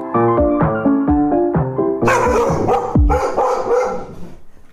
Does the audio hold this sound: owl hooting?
no